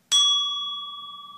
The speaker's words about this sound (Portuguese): Vou colocar aqui o barulho do sininho.